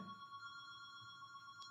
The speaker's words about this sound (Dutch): Is er nu iemand voor de deur? Nee, dit is de telefoon hier.